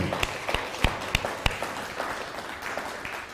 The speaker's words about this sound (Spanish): Bueno, pues bienvenidos, sean todos ustedes, un fuerte aplauso.